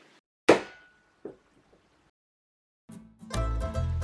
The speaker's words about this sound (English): someone getting hit with a Nerf bullet